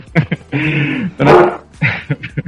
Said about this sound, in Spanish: Perdón, hombre. Él nunca suele ladrar así, eh, que pena contigo. Ya se le pasa